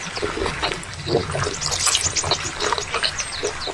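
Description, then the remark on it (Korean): The giant panda Fu Bao chewing a carrot, a dense run of wet, crackly crunching and munching that continues steadily without pause, with no voices. “푸바 푸바오가 당근 먹는 소리인데요.”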